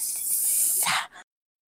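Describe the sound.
A voice imitates a snake with a sustained, breathy hiss lasting about a second, ending in a brief sharper burst before cutting to silence. Fairly loud, with no other sounds.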